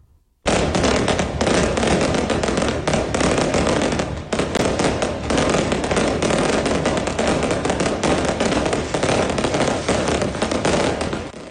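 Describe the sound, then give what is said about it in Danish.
A dense, continuous barrage of fireworks, firecrackers and Roman candles crackles and bangs loudly and steadily for several seconds, with rapid overlapping pops and no clear pauses, set off in the dark by Brøndby fans in Vestegnen welcoming the team's players home. “og de blev selvfølgelig modtaget med en masse fyrkeri, som lyste den mørke himmel op, og der var også rigtig mange romerlys, øh, og så var der selvfølgelig en masse lykønskninger og jubel”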